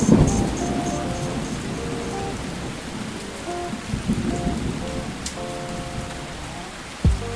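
Steady, dense rain hisses without pause while low thunder rumbles underneath, swelling early on and ending in a sudden sharper clap near the end. No one speaks.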